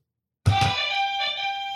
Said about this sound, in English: He's got the better buzzer